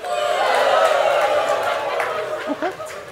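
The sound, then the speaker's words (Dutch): An audience, asked to clap, then cheer, then jubilate, claps and cheers together in a loud, sustained burst of applause and shouting that slowly tapers off, with a few voices rising above the crowd near the end. “Oké, ik ga jullie even vragen om eerst te klappen, dan te juichen en dan te jubelen.”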